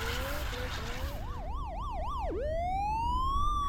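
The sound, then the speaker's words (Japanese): A police car siren whoops in quick up-and-down cycles, then shifts into a long rising wail, loud over a low rumble of road traffic. “あ、パトカー来たわ。”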